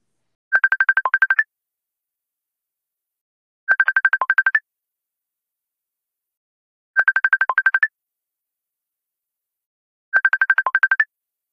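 An electronic phone ringtone trills while a call is placed to a guest: four short bursts of rapid beeps repeating at a steady pace with silence between them, clear, with no voices.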